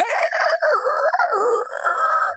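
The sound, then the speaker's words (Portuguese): A rooster crows once, loud, a long raspy call that wavers in pitch for a couple of seconds before cutting off. No one speaks over it. “é um galo com gogo É, ele fica fazendo uns barulhos”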